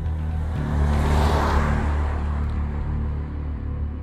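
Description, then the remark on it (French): A car engine rumbles steadily, swelling as it picks up speed and then easing slightly as the car, carrying two large dogs, pulls away toward Blasheim, 20 km from Strasbourg, with no voices present. “Il récupère la valise de maternité, embarque les deux gros chiens dans sa voiture, direction Blasheim, à 20 km de Strasbourg.”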